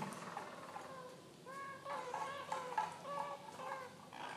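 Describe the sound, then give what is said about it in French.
Two Harz canaries sing in soft, rolling trills, their warbling tones rising and falling in overlapping phrases over a low background hiss, with no voices. “on voit qu'il y a seulement deux oiseaux qui chantent”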